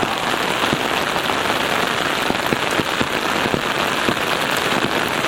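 Steady rain patters on a hard surface, a dense continuous wash with scattered louder drips and taps standing out. No voices are present.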